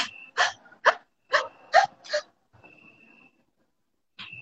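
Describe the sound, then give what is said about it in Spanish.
A person demonstrates frightened breathing: a series of short, sharp gasping inhales in quick succession, followed by a held breath with only a faint trace of air, then another quick gasp. “Entonces las personas que tienen miedo hacen esto, ¿no? Uno se echa para atrás, abre la boca, las manos, ¿va? Y la respiración comienza así como”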